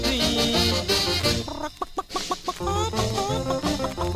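A hen's short, choppy clucks pop out in a quick burst midway through a twist song about a dancing hen, set against a lively, full band playing loudly around them.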